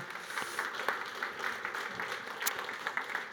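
A group claps together for a few seconds, a dense, steady patter of many hands with no voices over it, fairly soft overall.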